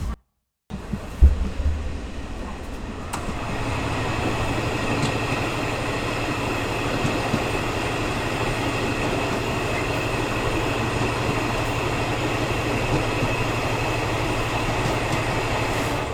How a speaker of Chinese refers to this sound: 那现在呢，列车就这样缓缓的行驶，准备从台东站出发。